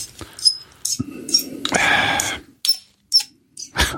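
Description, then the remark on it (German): A corkscrew's spindle is twisted back out of a wine cork, giving a run of short creaks and squeaks with one longer grinding scrape in the middle, then a few sharp clicks at the end. “Ich habe jetzt gerade rausgedreht. Ah, okay. Also die Spindel wieder aus dem Korken raus”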